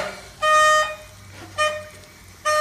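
A bright green carnival party horn is blown three times: a long buzzing toot, a short blast, then a third toot starting, each a bright, reedy tone with strong harmonics over a faint low background hum.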